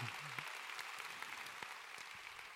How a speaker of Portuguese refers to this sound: Aplauda o Senhor, aplauda o Senhor.